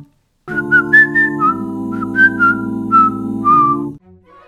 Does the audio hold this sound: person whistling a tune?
yes